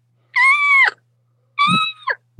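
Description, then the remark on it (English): Two loud, drawn-out turkey yelps blown on a mouth diaphragm call, each a raspy, high note that breaks downward at the end, with a brief pause between them and no talking. “If you can get that beginning, that beginning just that, and then what you want to do is drop your jaw to create that yell.”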